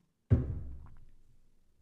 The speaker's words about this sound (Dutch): mocht je wat geluiden horen, dan eh, is dat de kat die hier op de achtergrond loopt